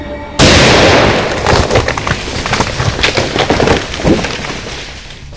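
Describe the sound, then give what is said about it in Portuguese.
A second sudden, loud explosion bursts out after a brief moment, followed by several seconds of rumbling, crackling debris and splintering noise that slowly tapers off. “E essa foi a última coisa que eu ouvi antes da segunda explosão.”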